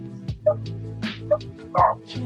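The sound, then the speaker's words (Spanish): Loose dogs roaming the area bark in a quick, uneven series of sharp woofs, about half a dozen, over a steady humming musical drone. “esto le, haría bien a los perros que rondan esta zona que andan desatados.”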